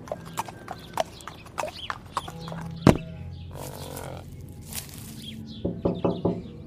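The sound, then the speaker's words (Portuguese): Horse hooves clip-clop in a steady trot as a rider goes to a house, followed by a loud thump and some shuffling, then a quick series of sharp knocks on the house's window near the end. “Eu vou tentar, eu vou com o cavalo até lá e vou bater na janela.”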